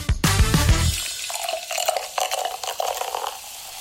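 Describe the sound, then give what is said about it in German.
Liquid glugging: a burst of deep, hollow gulps at the start, then a steady stream of lighter, irregular bubbling and gurgling until the end, with no voices. “einfach hier nochmal noch mal das Gluckern ein und ja.”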